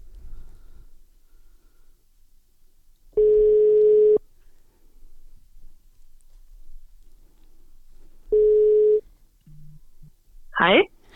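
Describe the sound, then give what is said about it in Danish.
Two long, steady ringback tones of an outgoing phone call, each about a second, separated by a pause, followed by a brief click and a voice picking up the line. “Vi ringer.”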